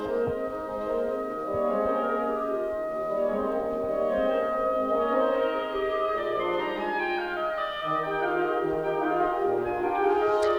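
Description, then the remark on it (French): A small brass ensemble plays sustained, harmonically rich chords that shift slowly from one to the next, steady, with no talking over the music, heard at Radio France. “petit ensemble de cuivre.”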